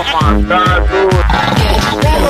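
A tiger roars loudly in a quick series of deep, rhythmic growling bursts, each one rumbling low with a rough, throaty edge.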